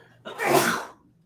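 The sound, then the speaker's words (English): A single sharp sneeze caused by allergies in a basement, a quick intake followed by a loud, breathy explosive release that fades within a second, with no talking over it. “Oh, bless you. Whoo. Excuse me.”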